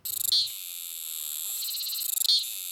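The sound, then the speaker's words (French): A cicada's loud, continuous buzzing drone (cymbalisation, produced by two small plates called cymbals at the start of its abdomen), opening with a quick run of rapid pulses and swelling again near the end with another burst of fast clicking pulses, heard alone. “Leur son est, produit par deux petites plaquettes qui se trouvent au début de l'abdomen, auxquelles on a donné le nom de cymbales.”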